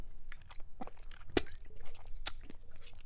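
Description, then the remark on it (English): Someone takes a quick sip of a lemon ginger cayenne drink with apple cider vinegar, with soft wet mouth noises and a couple of sharp slurping clicks and gulps, no talking. “I'm taking a sip real quick, sorry.”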